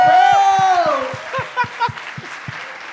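An audience claps for a young girl in a steady, rhythmic beat, with a long falling cheer or whistle ringing over the first second before the claps continue on their own.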